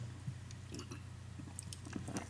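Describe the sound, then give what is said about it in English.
Quiet mouth sounds of someone sipping mixed berry kombucha: a few soft slurps and wet swallows over a steady low background hum, with no talking. “But for those of you who are worried about me, I will take a sip of kombucha.”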